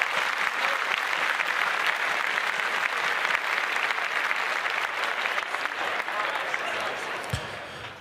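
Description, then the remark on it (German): Steady, sustained clapping from a group fills the whole stretch, a dense crackle of many hands at an even, fairly loud level, with a faint murmur of voices underneath, applauding the top three finishers of two tournaments. “An die Bestplatzierten, drei Bestplatzierten jeweils von beiden Turnieren. Applaus.”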